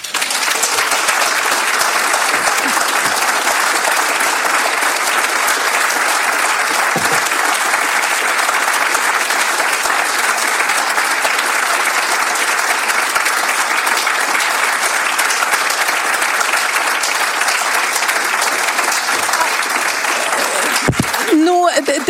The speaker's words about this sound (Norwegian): er så hyggelig at dere klapper så mye